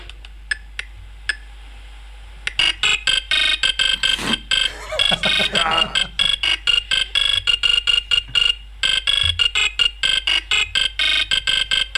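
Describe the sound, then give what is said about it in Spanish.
A chiptune-style melody from a 1984 football video game, played on a Sound Blaster 16-bit sound card, plays in rapid, repetitive electronic bursts, bright and buzzy with steady rhythmic pulses, loud and continuous after a few isolated beeps at the start; it accompanies players walking out of the tunnel before kickoff. “Era un juego que se caracterizaba por una musiquita muy típica que os la voy a poner ahora mismo, era así.”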